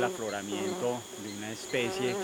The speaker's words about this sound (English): they're little bees, so I'm going to ask him actually on tape to explain what they are.